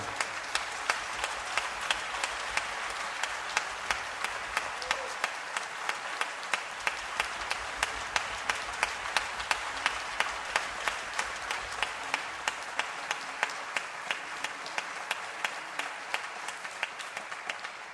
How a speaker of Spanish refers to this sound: Pido un fuerte aplauso